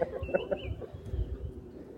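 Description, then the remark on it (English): Eleven hens and a cockerel cluck softly outside old brick buildings, waiting for a feed, a quick run of short repeated clucks early on, then quieter murmuring over a low background rumble. “So I'm stood now on the concrete path that runs up outside these uh, old brick buildings, and I've got 11 hens and a cockerel staring at me”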